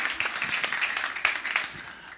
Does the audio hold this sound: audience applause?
yes